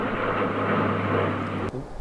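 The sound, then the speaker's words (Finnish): A steady, broad roar of an airplane passing overhead with a low droning hum underneath, loud and continuous before cutting off abruptly near the end. “vähän menee lentokoneita välillä tästä yli, mutta mut joo.”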